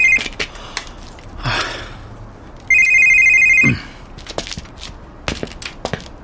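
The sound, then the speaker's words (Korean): A phone rings with a bright electronic ringtone for an incoming call from a manager, a short burst near the start and then a steady, louder ring lasting about a second, amid scattered clicks, a rustle and light handling noises, with no talking. “어, 연락이 없어 걸었는데.”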